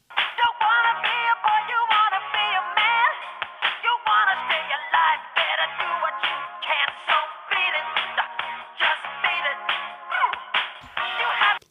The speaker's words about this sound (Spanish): Vamos a escuchar esta producción como si estuviera reproducida, ¿qué les parece? En un pequeño teléfono celular. Vamos a escuchar cómo suena esta canción.